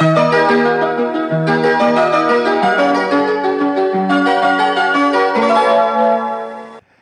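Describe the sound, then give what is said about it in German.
A bright bell chime of a Japanese tram rings out a sequence of clear melodic notes, loud, for several seconds with no talking, then trails off quickly at the end. “das war eine japanische Tram”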